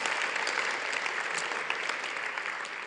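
An audience claps for God steadily for about three seconds, a dense, even patter of many hands that stays fairly loud throughout with no voices over it.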